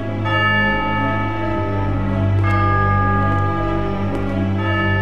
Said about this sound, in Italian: La nostra storia inizia con un suono di campane, quelle del campanile di una chiesa quel suono insistente, forte, festoso anche a volte, ma che nel nostro caso suona inquietante come quello di una campana a morto.